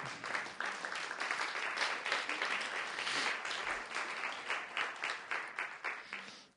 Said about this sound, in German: Kommt doch oben mit einem kräftigen Applaus.